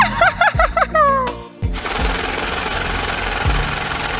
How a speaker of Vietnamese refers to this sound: Đúng là không tiếng nhạc nào bằng cái tiếng máy đếm tiền Mà cứ hễ nghe tiếng máy đếm tiền là tiếng nhạc lòng mình lại ngân nga